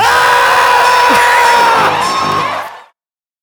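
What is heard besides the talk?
people screaming loudly together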